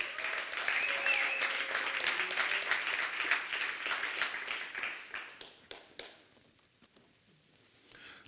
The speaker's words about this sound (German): Kommt doch bitte mal hoch, gebt ihnen doch gerade mal einen Applaus.